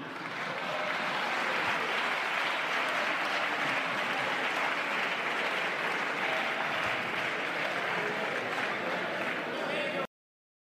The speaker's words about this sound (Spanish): No me refería a ninguno de ustedes, no sé por qué aplauden.